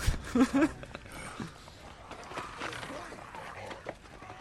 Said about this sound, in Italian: Cioè si sentono versi di zombie, eh.